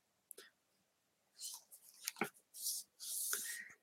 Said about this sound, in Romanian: Voi deschide la întâmplare cu ochii închiși și voi citi pe pagina dreaptă, să zicem.